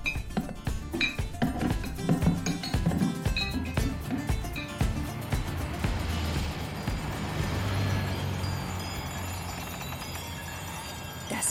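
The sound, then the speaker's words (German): A heavy kitchen table clatters and bangs as men haul it down a stairwell: a rapid burst of loud knocks and thumps at first, then a continuous rumbling scrape and rattle, with no voices. “Leise vor sich hinfluchend hoben sie den Küchentisch an und schleppten ihn mit viel Gepolter durchs Treppenhaus hinunter.”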